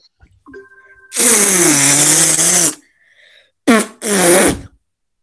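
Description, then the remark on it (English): A voice imitates fart sounds: one long, loud, buzzy raspberry lasting over a second, then two shorter sputtering bursts after a brief pause. “Do your best fart sounds.”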